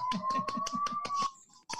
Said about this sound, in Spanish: Ahora mismo están aplaudiendo, están aplaudiendo sí, es aquí en la calle.